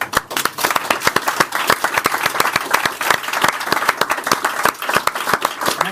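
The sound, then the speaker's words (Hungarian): Sustained audience applause for the production and post-production crew at the final live broadcast of the Olvasókör reading circle in an open workshop: many hands clapping in a dense, steady patter with sharp individual claps standing out, loud throughout the whole stretch with no voices over it. “utómunka kollégákra gondolok, akik részben a kamera mögött, részben egyéb tereiben a kamerán kívüli világnak helyezkednek el, de akik nélkül nem lenne adás sem most, sem korábban, sem a jövőben, úgyhogy nagy tapsot szeretnék kérni.”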